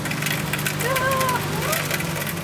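A cotton candy machine at a Kilbe (village fair) spins fast while heating up, with a steady motorized hum and whir, a constant low drone with faint rattling, while a few high thin tones briefly rise and fall over it.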